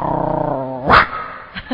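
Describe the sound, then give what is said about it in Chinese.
A person imitates a dog growling in a comic Chinese errenzhuan routine, voicing a dog that answers a phone on speaker: a low, rumbling, pulsing vocal growl for most of a second, then a sharp louder yelp-like burst and a couple of short grunts. “这狗在那边。”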